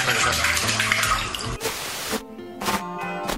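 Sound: water splashing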